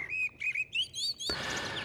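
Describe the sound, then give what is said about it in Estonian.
A common blackbird sings a run of clear, fluty whistled phrases in quick succession, then a steady rushing hiss rises and partly covers the last notes. No one speaks. “tema kõlavatest viledest koosnevat laulu kuuleb juba pimedas vähemalt tund enne päikesetõusu, aga linnades võib nende laulu kuulda lausa öö läbi.”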